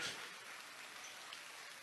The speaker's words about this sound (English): And they get a good hand from the crowd that has gathered here in this quarterfinal round. Class 4 District 8 basketball.